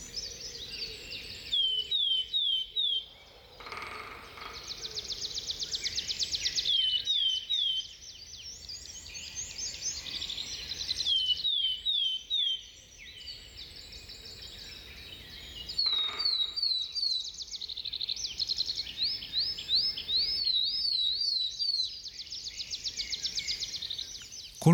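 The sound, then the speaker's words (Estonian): Willow tit and crested tit song: bright, high-pitched whistles and trilling chirps repeated in busy bursts with short pauses, clear, with no voices. “laul on nendel liikidel täiesti erinev ja Põhjatihas ja Nukra külalist laulu või vilistamist võime juba märtsis kuulma hakata”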